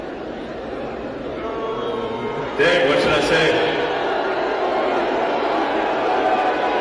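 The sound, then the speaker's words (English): A large crowd boos Elon in a steady, dense roar that runs the whole time, swelling a little louder partway through, while a man's voice speaks briefly over the noise. “People say, but they booed him for like four minutes.”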